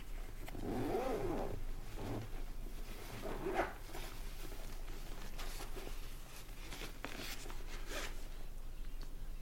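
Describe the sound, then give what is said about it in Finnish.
The zipper on a guitar bag's neck pocket is pulled open in a few rasping, ratchety strokes, followed by soft rustling and handling of fabric, with no one talking. “Ja avataan kaulan taskun vetoketju.”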